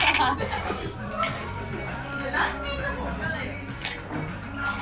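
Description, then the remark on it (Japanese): A few bright glass clinks ring out at irregular moments, mixed into a murmur of several people talking and laughing, as three people toast the start of Japan's Reiwa era. “じゃあありがとう平成ありがとうこれからよろしく令和乾杯乾杯”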